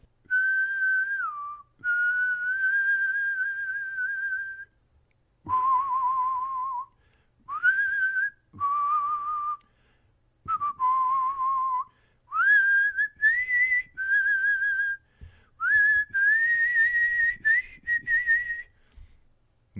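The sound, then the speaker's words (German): A person whistles the theme melody of a western film, slow and wavering, in a series of sustained notes and short phrases with brief pauses between them, fairly loud, with no talking. “also vermutlich schon, aber du pfeifst so schlecht.”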